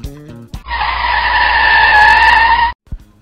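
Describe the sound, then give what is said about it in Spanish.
A car is floored hard in fifth gear, a loud, steady high-pitched whine and screech holding for about two seconds before cutting off abruptly, with a brief thud right after. “Allá le están metiendo la quinta a fondo.”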